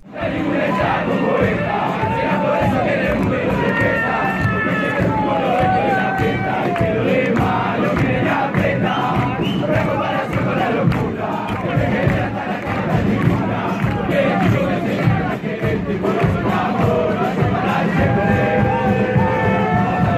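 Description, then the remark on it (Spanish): A huge stadium crowd of Peñarol football fans in Uruguay chants a song in unison, loud and continuous for the whole stretch, with rhythmic shouted phrases and a dense roar of voices. “La gente de Uruguay la usó para alentar a Peñarol y se volvió tan popular que incluso llegó a oídos de los artistas”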